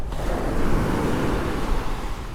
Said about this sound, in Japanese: なんかさ特に喋らなくてもこの音だけでいいでしょう波の音